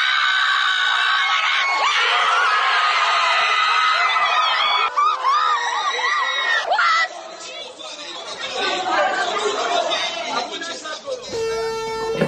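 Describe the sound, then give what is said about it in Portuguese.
A dense, noisy crowd of Iranian diaspora football fans in Rome shouting, screaming and cheering continuously, with excited voices overlapping throughout and a sharp, tonal burst near the end. “É minha prima, que é meu iraniana, me arrumou esse áudio da torcida da diáspora iraniana em Roma.”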